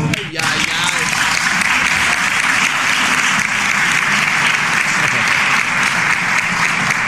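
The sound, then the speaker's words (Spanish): Sustained, dense applause from a large crowd, steady and loud for the whole stretch with no letup, a continuous wash of clapping that keeps going without fading. “Fue eterno ese aplauso.”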